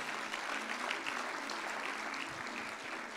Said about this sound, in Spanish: Dale un fuerte aplauso a Él.